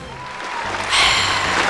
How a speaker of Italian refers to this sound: Ah, non ho mai preso tutti questi applausi in memoria. Ovazione. bello. Ovazione.